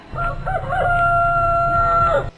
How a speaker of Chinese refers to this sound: 接着，远处的一只公鸡扯着嗓子大叫起来